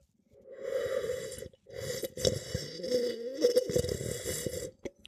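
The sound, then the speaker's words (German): Noisy slurping as a 2015 barrique-aged wine is drawn in and aerated during a tasting: a short airy suck, a brief pause, then a longer gurgling, bubbling slurp. No one speaks. “So, jetzt äh, trink dich nicht erschrecken, mhm. schlürf wieder.”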